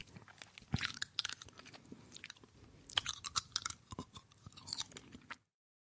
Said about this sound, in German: Nämlich so schmatzende Geräusche. Also es gibt mhm. ganz viele Leute, die eben auch Zuckerl essen oder zu Slime Geräusche machen, das mag ich einfach nicht.